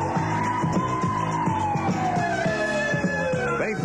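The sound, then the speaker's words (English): A police squad car siren, giving pursuit of a speeding car, wails loudly and steadily, its tone sliding slowly downward, over a driving rhythmic backing with regular thumping beats throughout. “Hey, you sitting there in your squad car running some radar when a car goes by that about blows the needle off the gauge.”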